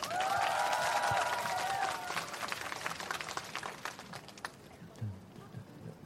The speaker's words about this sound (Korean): 박수 주세요.